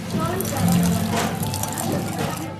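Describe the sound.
Spanish sidra (cider) poured from a height by an escanciador splashes steadily into a glass, a continuous gushing, frothy rush lasting a few seconds, with indistinct voices murmuring in the background.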